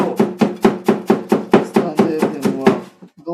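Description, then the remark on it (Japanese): Vegetables being chopped for a salad: about a dozen quick, evenly spaced knife strikes against a cutting board, fairly loud and steady, before the chopping stops. “サラダを作ってます”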